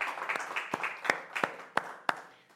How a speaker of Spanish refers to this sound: Un fuerte aplauso para nuestro Señor y vamos a orar.